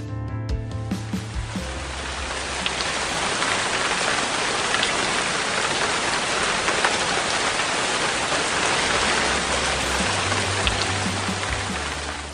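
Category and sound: nature, rain falling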